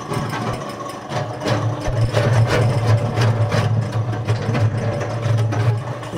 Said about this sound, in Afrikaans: gaan vir ons die masjien gou hier aan sit dan gaan ons gou 'n bietjie meng hierso.